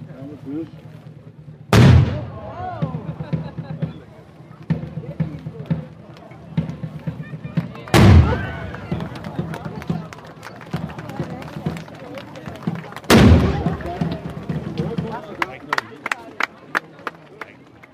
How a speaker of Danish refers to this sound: så skal der afgives skud ud over sundet, og det vi hører, det er det danske løsen.